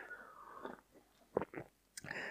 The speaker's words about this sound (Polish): łyk kawy